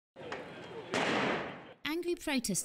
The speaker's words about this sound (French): Des manifestants en colère ont incendié des voitures et tiré des feux d'artifice sur la police française mercredi à Nanterre, dans la banlieue populaire de Paris.